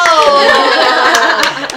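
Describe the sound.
A short burst of hand clapping from a few people, irregular sharp claps mixed with overlapping voices and a bit of laughter, fairly loud throughout.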